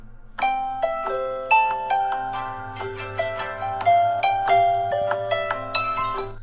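A mobile phone alarm rings out at night, a bright, chiming melody of quick repeated electronic notes in a steady rhythm, fairly loud, with a faint low hum underneath and no one talking.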